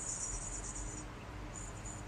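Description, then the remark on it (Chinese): A voice imitates a nearly dry balloon, used as the base for a papier-mâché head, leaking air during a high school class: a thin, high, steady hiss lasting about a second, a short pause, then a second hiss. No words are spoken. “然后我就坐在他斜后方，就那个就是那个气球它发出”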